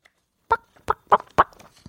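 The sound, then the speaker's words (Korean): A person imitates a chicken for a radio animal-sound quiz, with four short, clipped clucking bursts in quick succession, fairly loud, the last ones coming faster, with no other talking around them. “저희 그러면은 야, 닭소리 듣고 이 노래 들어도 될까?”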